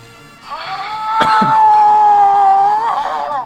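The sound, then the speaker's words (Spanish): A person imitates an animal howl in a howling contest: one long, sustained, high-pitched cry lasting about three seconds. It is loud, holds steady, then wavers and drops slightly before cutting off. “Pues a ver, el aullido mayor.”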